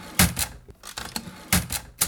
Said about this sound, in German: Die Tasten der Schreibmaschine.